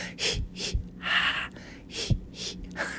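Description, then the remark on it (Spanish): A series of deep, audible breaths drawn in and pushed out in a slow, steady rhythm, fairly loud, demonstrating controlled breathing to help a woman through labor and birth. “Respira conmigo.”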